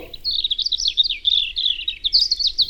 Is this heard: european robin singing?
yes